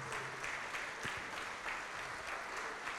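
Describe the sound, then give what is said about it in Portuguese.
An audience at Paz e Vida applauds in the name of Jesus, a dense, continuous wash of many hands clapping at an even level with no pauses, faint voices mixed in underneath. “Vem aqui para frente, vamos aplaudir mais ao nome de Jesus.”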